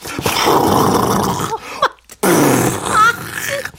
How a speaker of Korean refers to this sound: 묵직한 가스가 빠져나가는 그런 소리였죠.